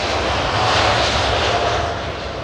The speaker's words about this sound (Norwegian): Koffertene blir lessa på, og passasjerene de går mot gaten og inn på flyet. Der spenner de på seg setebeltene og gjør seg klare for avgang og litt før klokka halv seks så tar flyet av fra rullebanen.